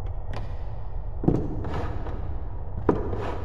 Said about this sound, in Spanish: como si alguien estuviera abriendo y cerrando cajones.